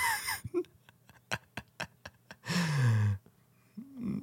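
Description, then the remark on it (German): A quick run of about eight sharp, dry mechanical clicks from a magical eye in a children's film, evenly spaced like a camera shutter ratcheting, with a short vocal whimper-like sound before and after. “Ein magisches ah. Auge mit mechanischen Geräuschen.”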